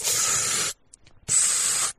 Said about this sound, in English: And then as I'm drawing back, I always take a really deep breath. If you ever listen to me shooting, you can just hear